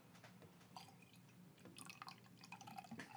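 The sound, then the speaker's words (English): Beer, a Danish Mikkeller beer called Henry Hops, pours into a glass, a steady, splashy trickle with bright fizzing pops and glassy tinkles over a few seconds, fairly quiet and with no talking. “Uh, there's people at home who did, they weren't they thought we were lying about drinking beer, and then when they heard the mm-hmm. pouring, they were like,”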